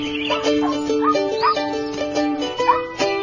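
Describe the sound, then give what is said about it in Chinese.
A small dog running up yips and whimpers in quick, high-pitched bursts, some calls rising in pitch, with a steady tonal whine running underneath throughout. “哎，有只小狗跑过来了。”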